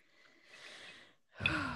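A close, airy breath drawn out for about a second, then after a short pause a louder, heavier sigh-like breath with a rougher edge. No talking.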